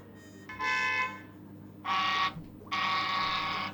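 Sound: car horn honking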